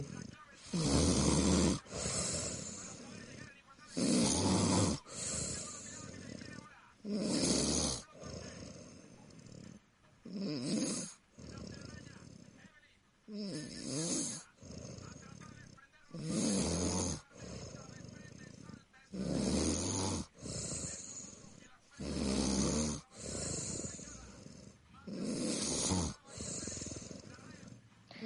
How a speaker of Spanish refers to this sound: organismo se está afectando porque no llega a las funciones restauradoras desde el punto de vista físico y mental alguien que ronca de esta manera.